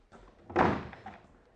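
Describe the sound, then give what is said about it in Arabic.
A door is shoved open with one solid thud that rings briefly before fading. No one speaks. “قديش عندك ما دزيتش عليا الباب”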